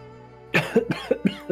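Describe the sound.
A person lets out four rough, hacking coughs from smoke in quick succession, fairly loud, sounding strained as if choking, after a brief quiet moment.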